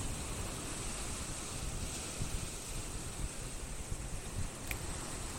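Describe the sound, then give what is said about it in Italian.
Steady wind roars over crashing sea waves during a storm surge, recorded live, in a continuous, dense wash of noise, fairly loud, with brief gusty swells and no voices. “traccia audio di questa eh, fantastica ehm, mareggiata, di questo, eh, di questo meraviglioso suono del vento e delle onde del mare che ho registrato live per te”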